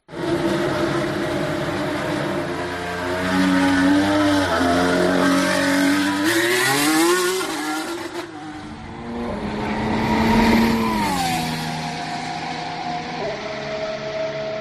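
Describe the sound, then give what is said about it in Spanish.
An Alpine Formula 1 car's engine screams at high revs on the straight at Silverstone during a filming day, its pitch climbing through gear changes and dipping briefly before surging again, loud and continuous with no talking. “Bueno, antes que nada, me quería volver a rescatar el sonido del motor que ilusiona a tantos aficionados, el sonido del Alpine.”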